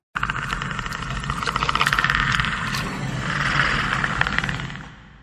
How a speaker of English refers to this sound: That was the Predator's clicking sound from the 1987 movie starring Arnold Schwarzenegger. Voice actor Peter Cullen came up with the sounds for the Predator.